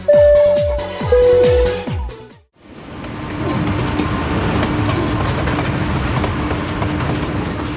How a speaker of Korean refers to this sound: 헝가리 북부의 미슈콜츠 지방에 도착했습니다. 릴라 뷰레드 국립공원을 미니기차를 타고 투어를 합니다.